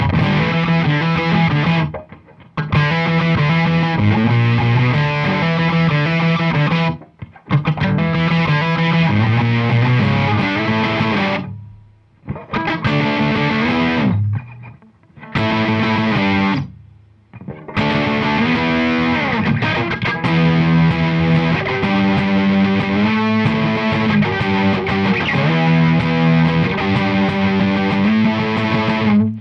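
A loud, distorted blues rock guitar riff plays in repeating phrases, broken by several abrupt stops and short silences before the riff crashes back in. No one speaks.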